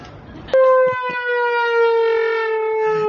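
A comedic trombone-like blare, made by a kid trolling his mom, bursts in after a short noisy moment, one loud, brassy, sustained note that slowly sags downward in pitch for about two and a half seconds.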